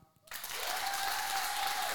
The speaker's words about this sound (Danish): Og øh, jeg ved ikke, hvor, hvor mange har været inde og se vores live shows før. Prøv at klappe.